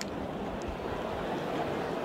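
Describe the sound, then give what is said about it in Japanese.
A large crowd murmurs at Hanshin Racecourse in fine weather before the start of the 67th Osaka Cup G1 race, a steady, diffuse hubbub with no single voice standing out, holding constant throughout. “まだ中山のメインの払い戻し金の表示その余韻が残っていますざわざわとした中この後 G1 レーススタートを迎えます”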